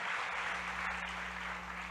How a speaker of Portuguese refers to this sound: Você pode aplaudir a Jesus, você pode sentar.